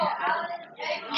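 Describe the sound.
Busy, overlapping voices fill a school hallway, a steady murmur of indistinct chatter with bits of children's laughter and exclamations echoing.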